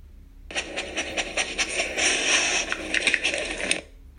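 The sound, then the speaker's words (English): A dog, Tulla, sniffs and snuffles rapidly in the woods, pushing sticks and leaves aside with her nose, for about three seconds, a run of quick, breathy, rustling bursts with an uneven rhythm and moderate loudness, with no one speaking. “She sniffed and pushed sticks and leaves aside with her nose.”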